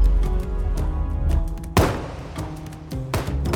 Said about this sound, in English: He starts shooting up the club, Bottles of liquor explode, and plaster bursts from the walls and ceilings. Soon, more gunshots join the cacophony as the Richardsons fire back.